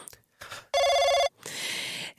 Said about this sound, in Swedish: 05.30 ringer telefonen.